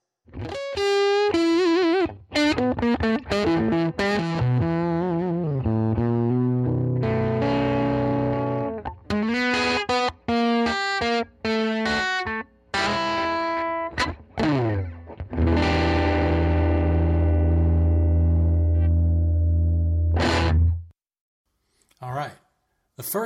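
A Les Paul electric guitar played through a small Magnatone Lyric 10-watt tube amp with gritty overdrive, running quick riffs and chords before a long, ringing chord fades out and one last short strum.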